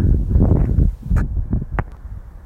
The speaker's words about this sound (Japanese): まあこんな状況なんでね、すごい今日は風の音がビュービュービュービュー入ると思いますが、なんせこちらはあの、スマホ1台でやりきろうとしてるんでね、いくら対策工事でもやっぱ入っちゃうもんは入っちゃうんでね